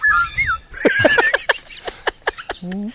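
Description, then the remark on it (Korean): A black-naped oriole sings fluid, flutey whistles, then a run of sharp, clipped calls and a final rising whistle. The bird sounds clear, and no one speaks. “만약에 정말 꾀꼬리처럼 하면서 꾀꼬리처럼 인사했습니다.”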